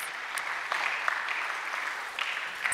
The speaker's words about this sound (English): Can we just give her a round of applause? Like, that is so cool. Single handedly, yes.